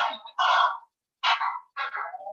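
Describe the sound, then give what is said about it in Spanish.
A dog barks three or four times in quick succession, short harsh yaps a little muffled, picked up through a meeting participant's microphone, with no one talking over them. “se oye un perro por ahí, ¿no?”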